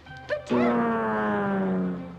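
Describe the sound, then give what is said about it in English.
Scraps, a male dog in the film Airplane II, gives a couple of quick, sharp yaps, then lets out a long, drawn-out whimpering whine that slowly sinks in pitch, fairly loud. “Well, my goodness, Scraps is a boy dog, isn't he?”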